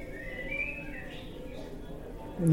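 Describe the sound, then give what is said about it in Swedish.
Faint birds chirp and warble against a busy murmur of people in a market soundscape, part of an exhibition installation about souvenirs, with a sudden louder sound at the very end. “Om du undrar vad det är som låter, folk, folk och fä och ljud och fåglar och sånt, så är det faktiskt en liten del av utställningen som handlar om souvenirer.”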